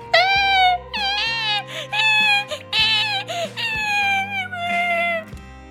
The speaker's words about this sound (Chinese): 兔宝宝哭哭的声音。不绝于耳。